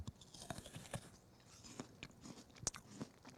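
Someone bites into an apple and chews it, with a string of crisp, wet crunches at an uneven rhythm and one sharper snap near the end. Nobody speaks.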